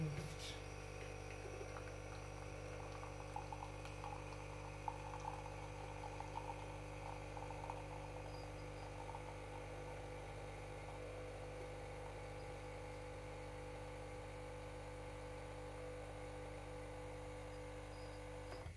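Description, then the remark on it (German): A coffee machine pumps and brews coffee with a steady, droning motor hum and a thin gurgle of water, running unbroken for nearly twenty seconds at a fairly quiet level. “Gut, dann wollen wir uns mal Kaffee machen. Ah, es funktioniert.”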